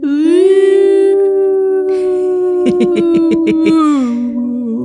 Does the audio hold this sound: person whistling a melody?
no